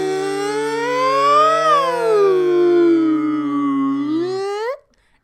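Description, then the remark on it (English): Two long, overlapping howls sound together in a clashing, off-key harmony, one low and steady, the other wavering higher and swooping up before both cut off after about four seconds. “And then he hears two howls in strange, sour harmony. It sounded like this.”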